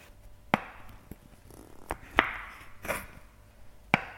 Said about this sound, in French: Le bruit du couteau qui tranche un bon gros morceau de comté.